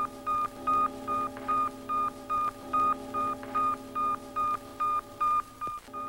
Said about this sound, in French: Le bip bip de Spoutnik est émis par ces deux émetteurs radio pour informer la Terre du maintien de la température et de la pression à bord.